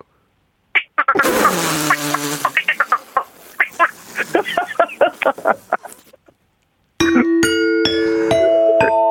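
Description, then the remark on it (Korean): A voice imitates frog croaks, a quick run of short rhythmic croaking bursts following a bouncy tune, loud, then a brief pause before a ringing chime-like tone plays. “자, 자 개구리로 빠라바밤밤 준비.”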